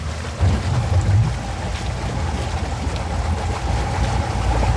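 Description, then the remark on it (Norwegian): A boat's low engine rumble churns steadily through water as the boat, overloaded with eleven armed men and sitting deep in the water, backs out from the rock it rested on, headed for Utøya, with splashing and wind noise blending in; continuous throughout, with no voices. “Når båten løftes av steinen den står på, ligger den dypt i vannet. Da var vi langt oppe på ripa når vi bakker ut der.”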